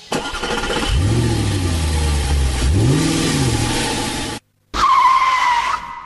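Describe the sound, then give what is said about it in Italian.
A car engine roars and revs hard twice as the vehicle sets off and accelerates away, followed after a brief gap by a sharp, high tire squeal. “Mappa impostata, cintura allacciate, chiudiamo i portelloni e si parte.”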